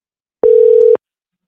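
A telephone ringing tone on an outgoing call to a grandmother: a single steady, mid-low electronic tone lasting about half a second, bracketed by small clicks, then silence. No one speaks.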